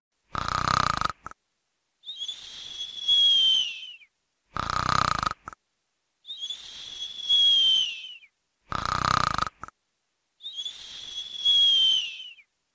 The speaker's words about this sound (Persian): علی به دایش که با صدای بلندی خوروپف میکرد نگاه کرد